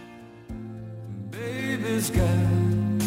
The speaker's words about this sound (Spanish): Le recomiendo para ese momento de evasión una canción lenta, como la que vamos a escuchar a continuación